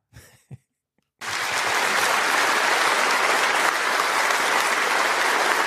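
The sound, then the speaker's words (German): Loud, sustained applause from a crowd breaks out after a second of near silence and a couple of brief murmurs, a dense steady roar of clapping that continues to the end. “Großer Applaus.”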